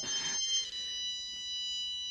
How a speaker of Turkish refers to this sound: Aa, bu ses de ne? E, e cep telefonum çalıyor affedersiniz.